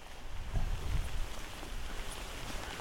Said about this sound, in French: c'est pas de chance le jour de pluie en plus.